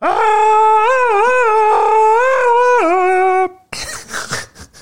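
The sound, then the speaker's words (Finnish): A man imitates Tarzan's yell from the jungle: one long sustained cry with rhythmic warbling pitch breaks lasting about three seconds, which cuts off into rough, breathy noise. “Eli äh, sitten tuota, siellä on menossa jo korillojen vangitseminen siellä viidakossa, niin Tartsan huutaa viidakosta, kas näin,”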